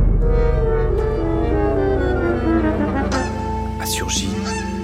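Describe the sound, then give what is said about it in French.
Loud, harsh honking from a white goose with its wings spread, several nasal calls that rise and break near the end, over a steady dense droning background. “Et moi, je l'ai vue, comme je vous parle, l'oie.”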